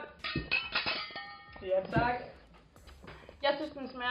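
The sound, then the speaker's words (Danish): Glasses of a homemade cocktail of vodka, cranberry cordial, water, lime and ice clink together in a toast, a few bright, ringing taps mixed in with several people talking and cheering over them. “Og vi skal smage den nu. Skål! Skål! Skål.”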